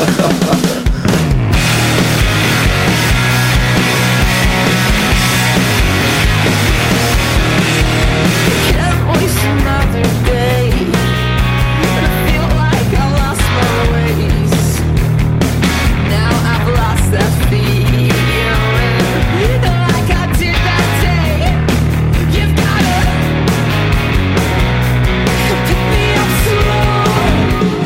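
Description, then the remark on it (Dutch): A loud, dense rock band recording plays continuously, with driving drums and distorted guitars filling the mix throughout, and no talking over it. “Eh, laten we het even, heel kort luisteren. Dan weten ja. waar we het over hebben.”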